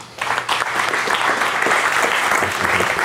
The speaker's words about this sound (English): Please join me in giving a big round of applause to our speaker